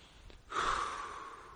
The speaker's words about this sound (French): Deuxième chose, respirer. Mais c'est pas seulement une image. Respirer vraiment.